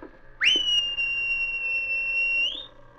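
A single loud, piercing whistle sweeps sharply up, then holds one steady high pitch for about two seconds before lifting slightly and cutting off, as a sergeant whistles aboard a ship to call his dog King. No one speaks.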